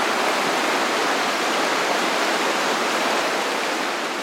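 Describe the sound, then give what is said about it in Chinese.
A mountain stream, the Sakeyajin Creek beside Battleship Rock (Junjian Yan), rushes steadily. It is a dense, even hiss of clear flowing water with a bright, airy edge and no breaks or changes in loudness. No voices are heard. “这是军舰脸旁的溪水的声音。”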